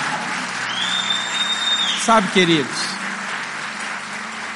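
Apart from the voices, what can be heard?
audience applause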